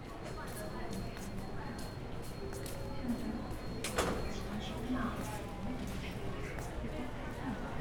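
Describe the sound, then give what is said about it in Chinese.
A Taiwan Railway (TRA) train at a railway station, a steady broad rumble and hiss filling the scene, with a sharp door-like clatter midway, scattered footsteps and murmuring voices underneath. “OK，其实那个是台铁的声音呢。”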